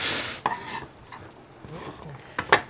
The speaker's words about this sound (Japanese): パクチーはあの根から出汁が取れるんでえそうなんですね、はい、これはあのそれはいい話掘り後で食べても美味しいんで今根を縦に半分に切ってはいポンって入れた感じですよね